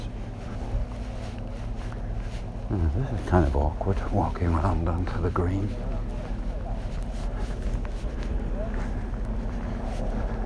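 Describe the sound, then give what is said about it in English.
Steady wind roars and buffets across a golf course, a constant low rumble with gusty microphone noise throughout, while a man speaks briefly over it in the middle. “You have to play well to get around here in level par in these windy conditions.”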